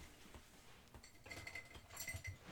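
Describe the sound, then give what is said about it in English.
Someone rummages through a pile of small objects, looking for a pen and a napkin, producing a cluster of light clinks, taps and rattles over a couple of seconds, with no talking. “I'm grabbing a subway napkin.”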